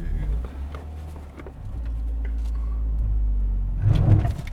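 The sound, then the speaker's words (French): A car's steady low engine rumble fills the whole stretch, with scattered small knocks and clicks over it and a brief louder surge near the end. “La voiture. la voiture.”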